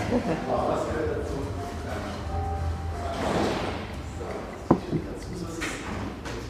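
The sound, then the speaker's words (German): A door is shut to keep out the noise, with one sharp thud and a softer knock right after, set against a steady murmur of background noise and faint indistinct voices. “ich gehe mal kurz die Tür zu machen, jetzt ist es mich doch sehr laut.”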